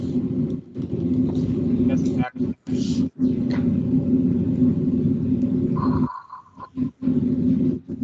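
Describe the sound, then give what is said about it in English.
A heavy, low train rumble roars steadily for about six seconds, with a few sharp clatters along the way, then cuts off abruptly, leaving quieter, uneven noise. “Yeah, that's good just lived under a train for a second.”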